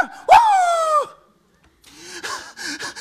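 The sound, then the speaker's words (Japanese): A performer imitates a dog with a loud, drawn-out yelping bark, followed after a short pause by a few rougher, quicker barking cries. “何なんだこの人はおいおい元は変わってないか元はおらぬか元は犬か元は犬かああ今朝ほど人間になりました”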